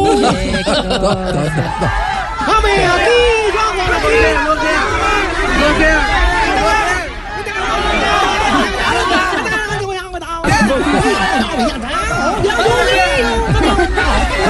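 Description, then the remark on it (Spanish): A crowd shouts the name of Colombian footballer James Rodríguez, a loud, unbroken wall of overlapping voices with rising and falling calls for about fifteen seconds, dipping briefly midway. “Y claramente el que más eh, eh, ruido causó fue el colombiano James Rodríguez como Así le gritaban a James, como le gritaban.”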